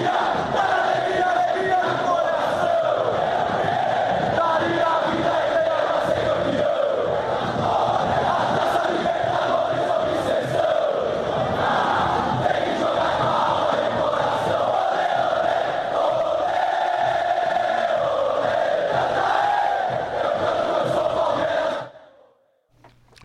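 A dense crowd of Palmeiras football supporters from the Mancha fan group chants in unison for over twenty seconds, a loud, steady mass of voices with a sustained melodic drone, ending abruptly.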